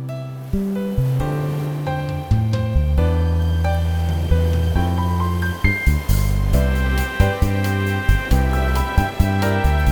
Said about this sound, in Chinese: 好，我们为这个好听的七星潭的海浪做了一段配乐。